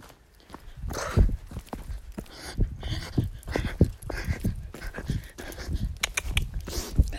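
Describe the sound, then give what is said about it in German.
A ridden horse's hooves walk over uneven ground with tree roots on a small path, giving an irregular series of dull thuds and clip-clops at a moderate level, with some rustling and no talking. “Über Wurzeln, bei den kleinsten Schleichwegchen kann man hier mit ihm galoppieren.”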